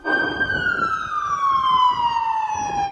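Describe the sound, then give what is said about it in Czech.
Emergency medical service ambulance sirens wail loudly and steadily outside the Faculty of Arts on Thursday afternoon, the tone sliding slowly downward as if the vehicle passes by, with faint road and traffic rumble underneath. “Sirény vozidel záchranné služby.”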